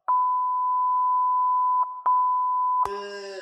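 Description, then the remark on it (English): A sustained, steady high-pitched censor bleep runs for nearly three seconds, briefly interrupted twice near its end, before a man's voice cuts back in. “I have to bleep all this out because he was on he was on uh, um, HT Nas last week and he was talking about it, but he couldn't say the name.”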